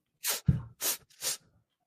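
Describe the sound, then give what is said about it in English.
A run of three quick, wet sniffles from a person with a runny nose in cold weather, fairly loud, with short breathy pauses between them and no talking. “you're sniffing, sniffling again. Oh, I'm sorry. I have a runny nose.”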